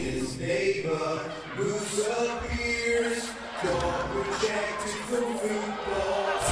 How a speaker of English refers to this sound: New entrance music to show the real Moose. Now, who wants to hear it? They got they pop for that. Let's take a listen.